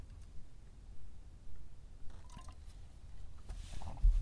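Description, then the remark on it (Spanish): Quiet wet slurping and small liquid squishes as someone takes a sip of coffee, a few soft gulping sounds spread over several seconds with no talking. “pasa para trago de café.”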